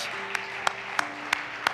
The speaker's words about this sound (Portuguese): Y una vez que esté en su lugar, dé un aplauso a Jesucristo, el autor de su palabra, ¿verdad?